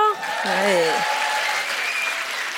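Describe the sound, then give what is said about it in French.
A crowd at an evening show hosting activist Camille Etienne claps steadily for a few seconds to show there are activists in the room: a dense even patter of many hands, with a brief wavering cheer or whoop rising over it near the start. “On a des militants, militantes dans la salle ce soir par applaudissement”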